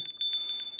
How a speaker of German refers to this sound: Du kannst dabei klingeln mit der linken Hand, mit der rechten Hand nimmst du das Räucherstäbchen und bringst es da, schwenkst es im Uhrzeigersinn.